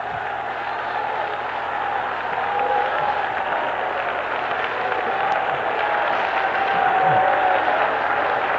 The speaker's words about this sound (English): Now, ladies, clap for yourself. Now, men, join them now. Let's clap for the Lord and lift our voice of triumph.